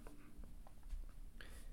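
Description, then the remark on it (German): Quiet scratching of a pen as someone writes a note on paper in short, irregular strokes, with no one speaking. “Das zum Beispiel schreibe ich mir jetzt auf Papier auf.”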